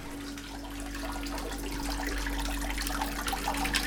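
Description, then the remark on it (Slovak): Thermal spring water in Trenčianske Teplice, Slovakia, pours steadily from a spout, a continuous splashing and trickling that swells slightly louder toward the end, with a faint low hum underneath and no voices. “A chutí mi, chutí mi tu voda v trenčenských tepliciach. Pijeme vodu, aj plávame.”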